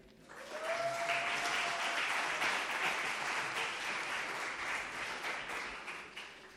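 Audience applause for the crew of the program Intercepciones, marking two years, swells in within the first second and holds as a dense, steady wash of many hands clapping for several seconds, easing slightly toward the end, with a brief whistle near the start.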